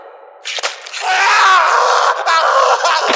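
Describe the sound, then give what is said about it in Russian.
Loud, sustained screaming from several people erupts after a brief quieter start and keeps going at full intensity, harsh and ragged, with no clear speech. “Горластые какие, ух! Вам бы в хоре петь.”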